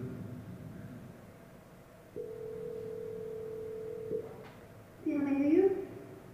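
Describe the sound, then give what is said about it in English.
A single long, steady ringback tone of an outgoing phone call to a small restaurant sounds for about two seconds over faint background noise, then a voice answers briefly, picking up the line. “Let's say you want to call a restaurant, but maybe it's a small restaurant which is not easily available to book online.”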